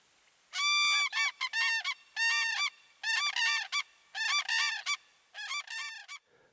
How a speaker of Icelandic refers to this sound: Grátrönur helga sér stórt svæði þegar það er verpa. Það eru styggar og erfilega hefur gengið að sjá til þeirra.